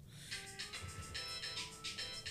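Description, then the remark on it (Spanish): A phone ringtone plays a bright, repeating electronic melody of quick pulsing tones, steady, with no talking over it. “Atendé si querés, pero fíjate que no salga eh”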